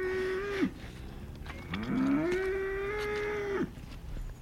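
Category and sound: animal, cow mooing impatiently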